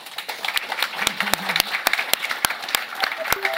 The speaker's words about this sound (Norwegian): Gi dem en applaus.